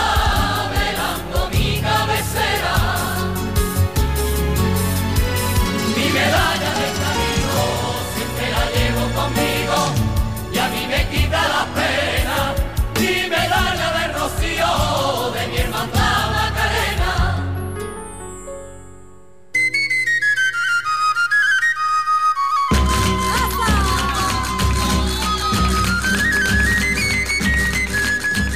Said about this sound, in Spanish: Acabamos de escuchar el coro de la … en la medalla.